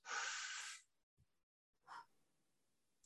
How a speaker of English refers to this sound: And when I had COVID every day, I couldn't do the real fast breathing, mm-hmm. but I would breathe in like this.